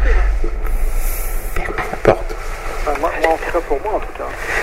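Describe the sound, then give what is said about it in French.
A big car roars past outside, its loud, steady engine rumble and road noise filling the background while a person talks over it. “on a, je sais pas si on a entendu la grosse voiture.”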